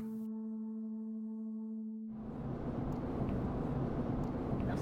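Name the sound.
inside a moving car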